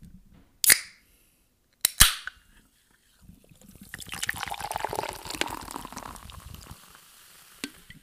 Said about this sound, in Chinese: 让我们一起听一听气泡水的声音。